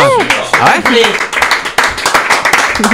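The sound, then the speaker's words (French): A group of people applauds with dense, steady clapping throughout, loud and continuous, while voices call out and cheer over the clapping. “Bon bah, c'est pas mal, on peut mm. applaudir.”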